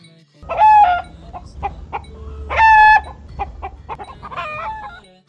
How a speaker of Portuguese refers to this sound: Alegria é aprender se divertindo, correndo atrás dos pintinhos e contando até 10 é ver a galinha ficar brava, toda eriçada, protegendo a sua ninhada.